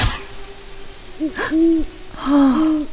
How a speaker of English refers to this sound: It's just an owl. That wasn't too spooky, says Pete. 只是一只猫头鹰，没那么吓人。皮特说。